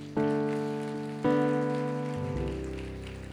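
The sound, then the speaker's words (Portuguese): An audience claps for Jesus in a steady, crackling patter underneath sustained keyboard chords, which strike twice and ring on. No one speaks. “Então dê uma salva de palmas a Jesus.”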